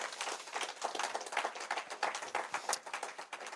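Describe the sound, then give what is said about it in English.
A crowd applauds steadily, a dense wash of many hands clapping at once with no pauses, holding an even, fairly loud level throughout without any voices. “Come on, give everyone a round of applause.”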